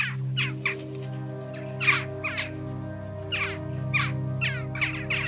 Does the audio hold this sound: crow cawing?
yes